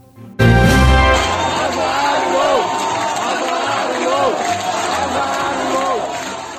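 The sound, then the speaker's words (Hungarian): A crowd at a public hearing in Debrecen about a battery factory planned next to the city erupts in loud, sustained shouting and jeering, many voices overlapping in a dense roar that starts abruptly and keeps going without letup. “Debrecenben így hangzik egy közmeghallgatás a város mellé tervezett akkumulátorgyár ügyében.”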